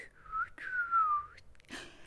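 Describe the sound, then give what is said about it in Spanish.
A pinwheel, held up and blown by the wind, whistles as it spins fast: a thin, steady tone that dips and slides in pitch over two close phrases, followed by a short breathy rush of air, with no one talking. “El molinete gira tan rápido que silba y canta y se ve borroso.”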